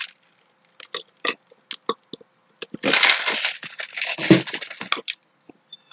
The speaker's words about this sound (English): Hey, I'm gonna take a swig real quick.